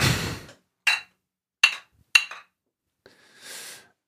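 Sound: glasses clinking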